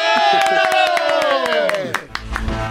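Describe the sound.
A crowd cheers loudly, a sustained chorus of voices sliding gradually downward in pitch, while sharp claps strike throughout, then the cheering fades into scattered applause and shouts, as applause is called for the introduction of the future first lady.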